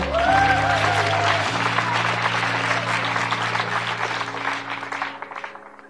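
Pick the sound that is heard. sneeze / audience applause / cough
audience applause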